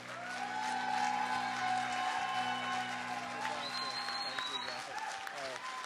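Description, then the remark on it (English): Steady applause from a church audience in Wasilla, Alaska, welcoming their pastor, a dense, continuous patter of clapping with a few scattered cheers and voices mixed in, over a faint sustained background hum. “Give a round of applause for our pastor”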